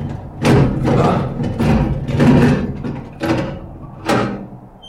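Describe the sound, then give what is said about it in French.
A heavy prison door being worked open, with a series of loud thuds and rattling knocks coming roughly every half second, then two sharper bangs near the end. No voices. “Oh, maudite porte, ouvre-toi ah.”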